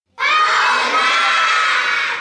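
A crowd of children in an audience shouts loudly together, calling out who should come onto the stage: a sustained, high-pitched collective yell that starts abruptly and holds steady for about two seconds before easing off slightly.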